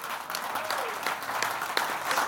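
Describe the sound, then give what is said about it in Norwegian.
Steady audience applause, a dense wash of many hands clapping at an even, moderate loudness throughout, with a few sharper individual claps standing out and no one speaking. “Ja, det er applaus.”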